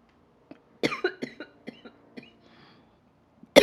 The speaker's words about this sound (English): I'm so red from coughing.